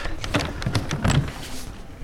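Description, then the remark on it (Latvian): The heavy old wooden archive door of the Tallinn City Archives creaks and rattles open over about two seconds, with several scraping, knocking sounds and no voices. “pie kuras varot senatnīgās arhīva koka durvis.”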